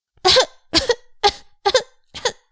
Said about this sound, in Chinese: 于是她不小心被饭粒呛到了，呛到了，choke，choke。Cinderella 涨红着脸咳嗽着，